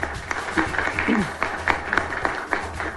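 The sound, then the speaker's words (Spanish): Steady applause from an audience at a press conference in Bogotá, welcoming hosts Ramel Falcao García and BBVA Colombia executive president Oscar Cabrera Izquierdo: a dense wash of many hands clapping at moderate loudness throughout, with sharper individual claps popping out and faint voices mixed underneath. “nuestros dos anfitriones de hoy, eh, nada más y nada menos que Ramel Falcao García y el presidente ejecutivo del BBVA Colombia, el doctor Oscar Cabrera Izquierdo, para quien pido un fuerte aplauso para ambos, por favor.”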